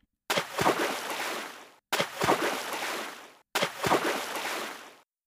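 Zebras and a lion jump into a swimming pool: three separate loud splashes into water, each a sharp impact followed by about a second and a half of churning, sloshing spray, spaced evenly with brief silences between.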